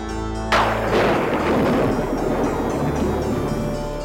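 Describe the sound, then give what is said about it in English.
A sudden, loud thunderclap cracks open and then rolls into a long, rumbling decay, heavy and booming with no voices; it is the stock thunder sound effect known as castle thunder. “That particular piece of thunder is called castle thunder, and it's a staple sound effect”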